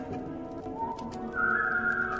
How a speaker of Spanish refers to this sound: De pronto, ante su sorpresa y alivio, escuchó a lo lejos, desde el bosque, un silbido peculiar.